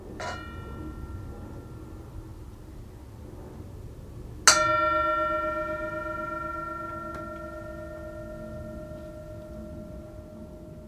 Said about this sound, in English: And so with the bell, we're invited to just enjoy the sound of the bell. Enjoy the sound of the bell. Enjoy it in this moment.